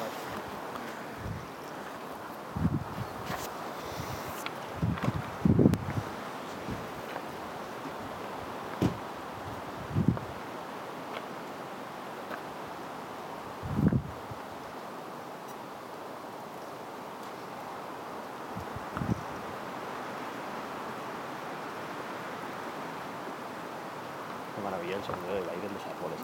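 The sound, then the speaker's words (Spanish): Steady outdoor wind with a broad rustling hiss of air moving through tree leaves, punctuated by low rumbling bursts of wind buffeting a phone's microphone. “Sí, justo pensaba que ojalá se pudiera grabar bien el sonido del aire en los árboles y no el viento en el teléfono”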